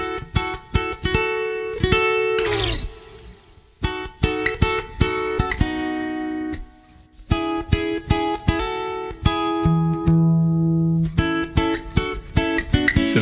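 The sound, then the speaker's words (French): A solo guitar cover version of a song plays, with bright, steady harmonic notes in a lively rhythm, brief pauses between phrases and a sustained low tone toward the end, all instrumental with no voices. “Bon, t'as reconnu, forcément, hein, depuis le temps que je t'en passe des covers.”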